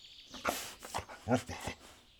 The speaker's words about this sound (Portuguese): O cão enfiou o nariz no chão úmido, inspirou fundo e bufou.